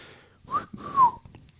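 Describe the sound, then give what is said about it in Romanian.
A soft human whistle, two brief gliding notes, the second slightly longer, heard quietly with no one speaking. “Lombar fluieră încet.”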